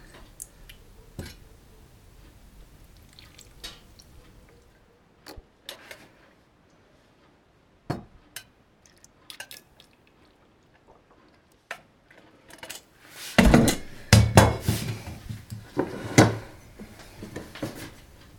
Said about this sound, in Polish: Teraz przeleję ją jeszcze ciepłą do owoców i rodzynek w, umieszczonych wcześniej w salaterkach. Nie mam niestety żadnego pomysłu, jak zaproponować, żeby e, rozleć całą zawartość równo, więc po prostu staram się wlewać jednakowo długo.